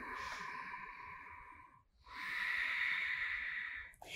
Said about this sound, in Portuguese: Porque a respiração mais poderosa é de boca fechada e pela base da garganta, não é?